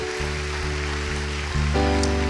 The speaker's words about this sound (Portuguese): Vamos dar um lindo aplauso.